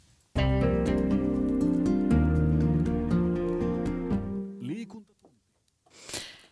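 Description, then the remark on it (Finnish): A loud, full theme jingle of the Finnish radio sports program Liikuntatunti, with layered sustained chords, plays for about four seconds, then fades away, followed by a short breathy noise near the end. “Ja näin liikuntatunnin tunnari feidautui alle.”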